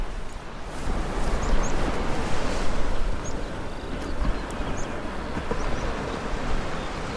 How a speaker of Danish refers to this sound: Det er sjovt, jeg kan jo både høre øhm, havet, og jeg kan høre fuglesangen bag ja. os.